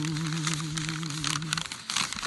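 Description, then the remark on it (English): A sheet of paper with a question on it is crinkled and unfolded in a continuous, irregular crackle for a couple of seconds, with a low steady hum underneath that fades out partway through. “but I'm sorry, I, before I hand it to you, the paper fetishists will be angry if I don't give them a little bit of.”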